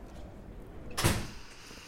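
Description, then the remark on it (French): A front door is swung open by a person in one brief, full-bodied rush of sound lasting about a quarter second, framed by quiet room tone with no one speaking. “Elle ouvre la porte.”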